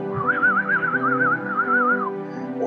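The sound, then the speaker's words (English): A person imitates a giant's whistle with a loud, warbling tone that wobbles up and down rapidly for about two seconds, then stops. No one speaks. “Free as a giant's whistle, the giant picks you up, blows in your butt, comes out your mouth.”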